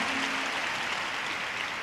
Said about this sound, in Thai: แล้วก็ขอเสียงปรบมือหน่อยค่ะนะคะนะคะ